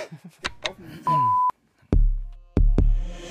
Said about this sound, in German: Kleiner Alarm vorne dran.